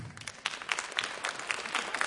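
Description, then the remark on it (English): An audience applauds with steady, dense clapping, a fairly soft wash of many hands with small bright peaks scattered throughout. No voices are heard. “Sometimes you get applause for not failing.”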